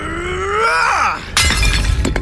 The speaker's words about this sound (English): On impact, it shattered into pieces, sending bits skittering across the driveway.